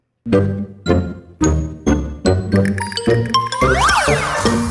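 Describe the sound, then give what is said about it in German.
A short, loud musical show intro jingle, digitally sped up by a computer dropping short samples: bright, chiming hits repeat faster and faster, ending in a warbling, smeared cascade of high, sliding tones. No one speaks. “Wie das klingen kann, hören wir nun mal am Beispiel von unserem Sendungsintro.”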